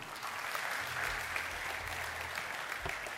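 A crowd of people applauds steadily, a dense, even patter of many hands clapping that holds at a constant level throughout, with no voices standing out above it.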